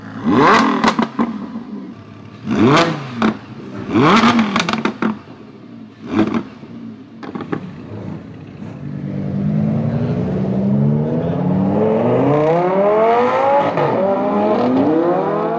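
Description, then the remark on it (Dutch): A Lamborghini Huracan sports car engine revs sharply in several loud bursts, each blip rising and falling, then settles into a sustained, roaring acceleration with rising pitch sweeps, with no voices. “eh, voor de liefhebbers, um, het, je er een merk op plakken? Ja, of, eh? de Lamborghini Huracan.”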